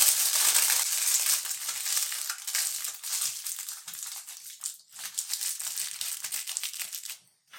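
Aluminum foil crinkles and crumples continuously as it is wrapped around the top of a bottle to make a Leyden jar capacitor, a dense, bright, papery rustle that briefly pauses twice before trailing off at the end.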